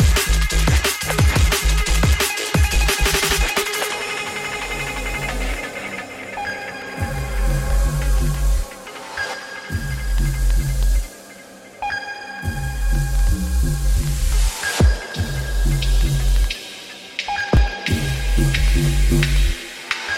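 Loud electronic dance music with fast, driving breakbeat drums and heavy pulsing bass, layered synth tones and brief breakdowns where the beat drops out before slamming back in. No voices.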